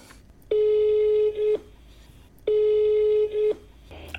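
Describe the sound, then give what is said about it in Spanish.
Two long, steady telephone ringing tones, each about a second, sound about two seconds apart over a quiet line as a call is redialed on the fourth attempt, with a faint rustle after the second ring and no one speaking. “Justo ahora me está enviando un nuevo WhatsApp en el que dice que sí, que le vuelva a marcar”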